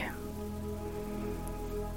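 nature, rain falling

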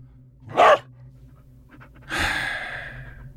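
animal, dog panting

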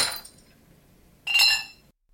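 household object, drinking glass knocked over

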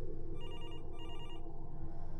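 household object, telephone ringing

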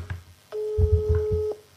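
signal or alarm, phone ringing tone

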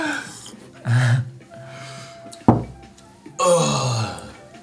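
human body sound, loud exaggerated yawn

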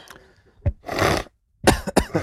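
human body sound, coughing

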